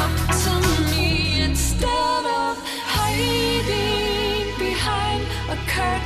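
A progressive house remix plays loud and continuous, with a full low bass bed under layered, shimmering synth chords and a melodic vocal-style line weaving through, briefly thinning out midway before the full mix returns.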